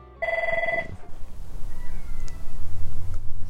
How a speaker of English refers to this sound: Is that a cat, a cat or a baby? A Someone's crying. It's very fitting that a cat's whining at the door. the cats are the bosses around here. They tell us what to do.